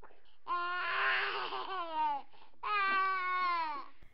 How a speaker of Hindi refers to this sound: जब घर में बच्चे की किलकारी गूंजती है